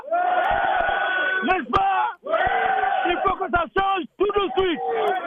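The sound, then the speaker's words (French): A loud crowd of protesters in Washington, demonstrating in June 2023 against police violence in Mauritania, chants and shouts in rhythmic bursts, voices rising and falling together with brief pauses between phrases, sustained throughout. “Manifestation à Washington contre les violences policières en Mauritanie”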